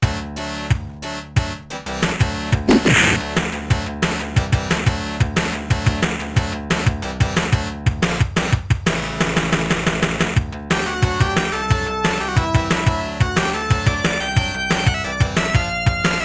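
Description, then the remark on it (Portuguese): Sixteen-bit game music from a Mega Drive port of an arcade game, with bright, buzzy synth melody lines over a punchy, steady bass and drum rhythm, loud and continuous throughout, with no talking. “E esse é o som do porte para o Mega Drive do Street Fighter 2 Champions Edition.”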